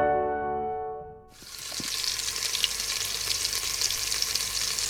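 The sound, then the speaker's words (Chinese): A brief steady tone opens, then vegetables hit a hot wok and a loud, continuous sizzle takes over, dense with crackling pops and hiss as they stir-fry. No one speaks. “乖乖，你有没有经常听到妈妈或者是爸爸在炒菜的这个声音呢？”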